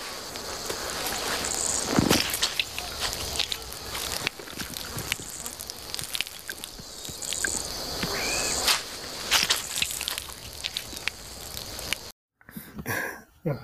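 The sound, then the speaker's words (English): Wet, squelchy squeezing of fresh elephant dung to get its juices to drink for survival where there is no water source, with irregular crackling bursts, set against a steady outdoor hum of insects; no one speaks, and the sound cuts out briefly near the end. “that, ladies and gentlemen, is the sound of Bear Grylls uh, squeezing elephant dung to get the juices”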